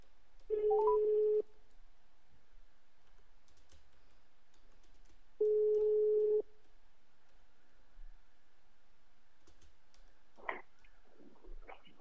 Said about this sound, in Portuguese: Toca o telefone.